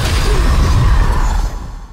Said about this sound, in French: Heureusement, les vaches, probablement par instinct pour protéger leur progéniture, se regroupent et chargent, tête basse, sur la bête. L'animal laisse échapper une sorte de grognement,